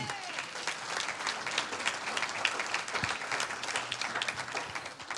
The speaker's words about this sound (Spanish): ¿Cuántos dicen amén? Un aplauso al Señor.